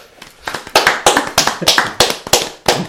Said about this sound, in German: Applaus bitte für mich.